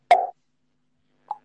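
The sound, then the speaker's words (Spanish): A sharp plop as something drops into a glass, with a brief bright ringing tail, followed about a second later by a softer, smaller plop. Clear, no voices. “me cayeron en un vaso, justamente.”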